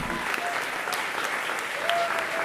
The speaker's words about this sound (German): Das finden Sie richtig gut die Besucher in der alten Brotfabrik in Frankfurt. Applaus für Andrea Maria Fahrenkampf aus Schwalbach in der Show von Fee und Jan König.